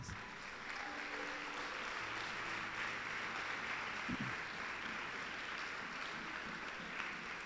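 An audience applauds steadily for several seconds for two young girls of about 14 to 15 who have stood up, a dense, even wash of many hands clapping at a constant loudness, with no voices speaking over it.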